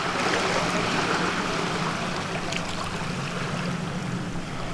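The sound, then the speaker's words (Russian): Steady riverside ambience along the bank of the Tagus river: a continuous wash of moving water with a faint low rumble, like a boat passing, even in level throughout with no voices. “Мы с Антоном встретились в коворкинге и пошли пить кофе, гулять вдоль берега реки Тахо и знакомиться.”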